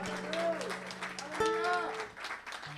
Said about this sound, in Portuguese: E se você crê nisso, dê um glória a Deus, dê uma salva de palmas para o Senhor, amém?